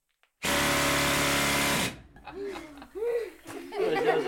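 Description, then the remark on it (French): A loud, steady blast of compressed air hisses from a valve opened on a column in a mine for about a second and a half, then cuts off abruptly as people begin talking and chuckling. “Qu'est-ce qui pourrait bien circuler dans cette colonne Oui, toi De l'air Bien, mais ici c'est de l'air comprimé. Quand on va ouvrir la vanne, ça va faire un peu du bruit.”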